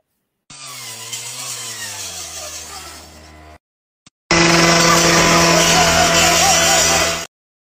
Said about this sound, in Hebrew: אני הולך להראות עכשיו אה, איך מביאים מסור חשמלי אה, והכעס הזה, ראינו קודם, הראיתי קודם את השריפה ש, שה, אה, שהמתפרעים שורפים בתים וחנויות והופכים מכוניות ועניינים, מביאים מסור חשמלי ובוזזים בנקים.